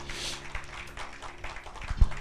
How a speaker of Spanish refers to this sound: Le damos un aplauso al Señor en esta mañana. Gracias Jesús.